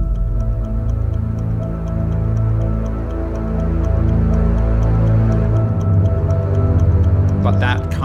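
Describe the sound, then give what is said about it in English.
A steady, evenly spaced clock-like ticking runs through a sustained orchestral music score originally written for Bringing Up the Bodies, the crisp ticks sitting high above low, droning strings that swell slightly toward the end. “And then we've got the tick tock in the cube bodies.”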